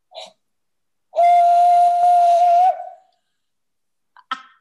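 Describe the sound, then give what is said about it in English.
A person blows one long, steady whistled note imitating a bird call, loud and breathy, holding for about a second and a half before trailing off, with brief short chirps before and after. “It's like a a calling for birds or something.”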